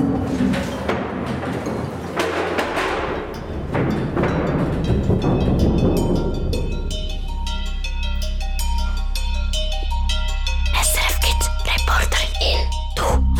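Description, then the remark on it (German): A motorbike roars through a tunnel leading deeper into a mountain bunker, lined with walls, rock and cables, starting as a rough, noisy rush and settling into a loud, steady engine drone with a booming, echoing character, and no one speaking. “wie er zum Beispiel mit dem Töff durch den Bunker düst”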